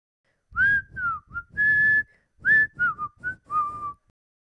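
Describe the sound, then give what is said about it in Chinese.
Someone whistles an imitation of bird calls, meant to sound as if coming from woods far away: two groups of short, bright chirping notes with a brief pause between them, some notes sliding down in pitch, clear and with no talking. “…又在为他的好朋友们表演口技。他发出的声音就好像从远处的树林里传来的”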